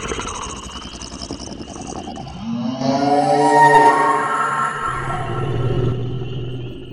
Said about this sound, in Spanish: soltó un rugido que poco a poco se volvió más y más agudo hasta convertirse en algo así como un grito chirriante. Nunca había escuchado algo semejante.